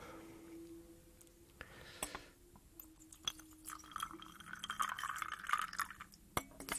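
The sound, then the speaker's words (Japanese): Coffee is poured into a cup with a rising, bubbling gurgle, accompanied by a few light clinks of glass or ceramic and some soft handling noises; no one speaks. “さて、ちょっと、ひとしきり喋ったんで、コーヒーでも飲もうか。”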